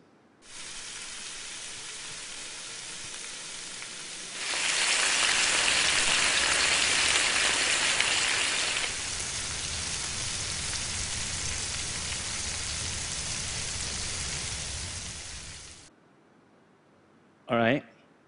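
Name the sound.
bacon frying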